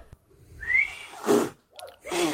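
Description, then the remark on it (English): A failed attempt to whistle for a dog: a brief, thin rising whistle tone, then two breathy, spitting bursts of air where the whistle won't come, fairly loud. “Where's you the just, whistle gone? You're spitting at your dog.”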